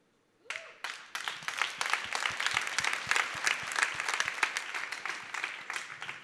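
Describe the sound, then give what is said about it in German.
Audience applause starts abruptly and builds into a dense, steady wash of many hands clapping, with a few sharper individual claps standing out, holding strong for several seconds without any talking. “Mein Traum und das, wo ich mir wünsche, dass du auch mit Applaus einsteigst, ist, dass es im Lauf dieses Jahres absolutes Normalste für jeden von uns wird, Jesus nachzurennen”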